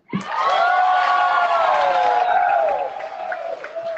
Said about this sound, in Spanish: Fuerte el aplauso, fuerte, fuerte, fuerte, fuerte para nuestro mentor, el doctor Herminio Nevares.